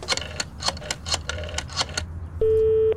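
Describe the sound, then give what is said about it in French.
A phone being dialed from a public phone booth outside a Paris high school in December 1984: about eight sharp, evenly spaced button clicks, then a steady, buzzing telephone tone holds for half a second at the end. “Au bout d'un moment, il va à la cabine et il l'appelle.”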